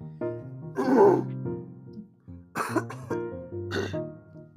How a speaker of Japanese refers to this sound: ごめんね、こんなさ、音声配信でさ、人の様のね、あの、咳を聞くとかさ、ほんとごめんね。